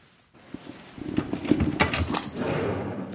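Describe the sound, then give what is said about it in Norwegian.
Gold rings jangle and clink as they are taken out in a small goldsmith shop in Sandvika, Norway: a run of small, bright metallic taps and rattles, irregular and moderately loud, with no one speaking. “Ja, vi kan jo ta frem eh, noen fine ringer her.”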